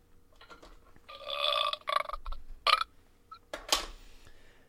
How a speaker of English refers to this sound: Sorry, I'm burping.